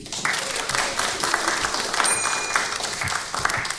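Steady applause from an audience for a resident who answered four of five quiz questions correctly, a dense patter of many hands clapping at once, sustained at an even level throughout with a few sharper individual claps standing out.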